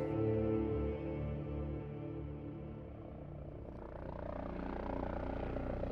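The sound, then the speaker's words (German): A helicopter flies toward London's Hatton Garden jewellery district around 1999 to land on the De Beers roof, its loud engine and rotor droning steadily throughout, the tone turning rougher and more turbulent toward the end. “Um 1999 fliegt ein Helikopter in Richtung des Londoner Juwelendistrikts Hatton Garden.”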